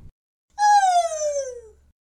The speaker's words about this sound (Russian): This is a normal gibbon call.